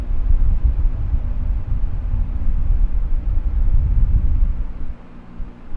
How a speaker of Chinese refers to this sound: 啊，应该是电风扇的声音吧。嗯，好像有一点冷呢。